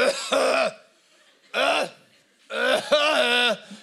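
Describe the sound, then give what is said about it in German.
A voice performs three loud, exaggerated coughs, imitating how someone coughs when a paramedic is in the house, each a drawn-out, strained burst with a pause between them, the last longest and most theatrical. “Und dann gibt es so Leute wie meine Mutter zum Beispiel, wenn äh, so, so ein Rettungsdienstler im Haus ist, dann hustet man so übertrieben.”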